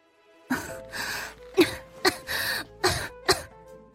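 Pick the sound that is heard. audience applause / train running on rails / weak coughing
weak coughing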